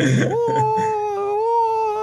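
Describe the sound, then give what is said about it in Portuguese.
A voice imitates the wailing 'sereiês' cry of the freshwater mermaids (iaras, under the regency of Oxum) as they come at a terreiro, a sustained, high, wavering tone that holds steady for about two seconds after a brief breathy onset, sounding mournful like a whimpering sob. “É, associam a choro, né? É, Mas é, é um sereiês, vamos falar assim.”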